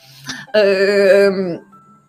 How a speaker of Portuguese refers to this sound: Assim, agora vocês vão ouvir o caminhão do lixo.